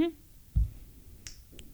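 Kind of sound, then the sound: human body sound, finger snap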